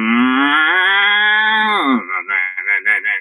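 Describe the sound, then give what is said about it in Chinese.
A voice imitates a shoegaze guitarist's effects pedal as the guitarist strums a chord, then crouches and turns the pedal's knobs: a loud, steady droning hum for about two seconds, then the pitch drops and the tone wobbles in a rapid, pulsing warble. “它可能砰，然后一个和弦刷下去之后呢，吉他手就会一直盯着效果器看， 嗯， 然后蹲下来，然后开始转效果器，砰，然后那个效果器就是”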